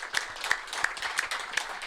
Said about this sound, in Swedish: En liten golfapplåd på den.